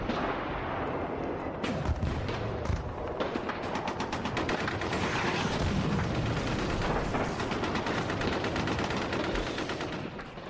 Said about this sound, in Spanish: Bueno, nuestra historia sonora nos lleva a, campos de, de, batalla de todo el mundo. Hablaremos de esto, de lo que escuchamos en este momento Em, de palazos, de bombazos, de la guerra.